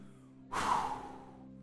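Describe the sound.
A person imitates a dying man's final breath: one long, breathy exhale that begins abruptly and fairly loud, then slowly fades away with no words spoken.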